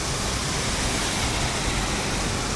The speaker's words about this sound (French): Il est 13h20. Nous sommes en ce moment à Bangkok le 20 juin. Il y a 10 minutes, il a commencé à pleuvoir un peu, puis beaucoup, puis beaucoup beaucoup.